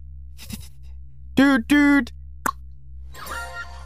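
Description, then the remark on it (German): A couple of sharp, isolated tongue clicks pop out, separated by two short sustained voiced tones, with a breathy rustle trailing at the end. “Dein drittes Geräusch ist Zunge schnalzen.”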